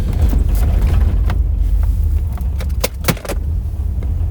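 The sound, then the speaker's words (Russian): Inside a moving car, a heavy low engine rumble runs throughout while something loose shakes somewhere in the car, rattling and crackling in scattered, irregular bursts, with a few sharper clatters near the end. “треск такой, то простите меня, я не виноват что-то где-то трясется в машине, а я сейчас на ходу, конечно же, не смогу это посмотреть.”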